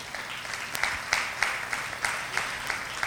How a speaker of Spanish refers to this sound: Dele un aplauso a Él.